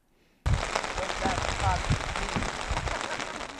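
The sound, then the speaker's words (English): Dense, steady rain pattering onto Lake Mapourika in West Coast Glacier Country, New Zealand, on a misty early spring day, a constant hiss of drops that begins abruptly after a moment of near silence and continues evenly throughout. “Even on a rainy early spring day, tourists are still keen to kayak Lake Mapourika.”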